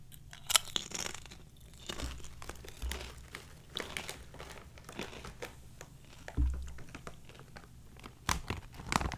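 Crisp crunching of potato chips being chewed, a steady run of sharp brittle crackles and crinkles with no talking, loud throughout.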